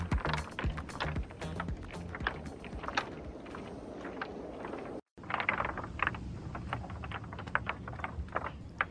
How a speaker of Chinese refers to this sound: 你现在听到的声音是在海岸边鹅卵石被浪击打而发出的声响，当地人称呼它为大自然的打鼓声。